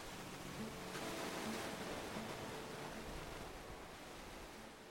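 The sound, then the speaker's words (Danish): Steady rushing surf on a North Sea beach, with a broad, continuous hiss of breaking waves and wind, swelling slightly early on and then easing, with no voices present. “Elskede, øh, når jeg var hjemme og besøgte mine forældre, det der med at komme til Vesterhavet og bare sidde nede på stranden og bare med lukkede øjne og mærke vinden og lytte.”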